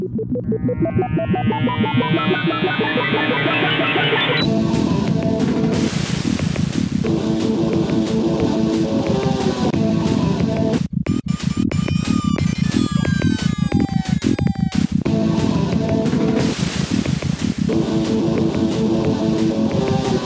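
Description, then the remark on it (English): A rising synthesized swell opens into loud, driving intro music from the Sega Genesis version of a video game, with buzzy FM synth melodies, sweeping electronic zaps and a steady pounding beat, playing alone without voices. “Just the intro music alone is is really cool, and you know what? I'll spin some of that for you right now.”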